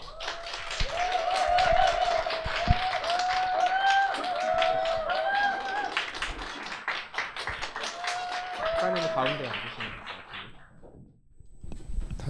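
An audience at a book talk hosted by the online bookstore Aladin breaks into sustained applause as an author and a professor are invited up, a dense steady patter of many hands lasting about ten seconds, with some voices ringing through underneath before the clapping thins and fades out.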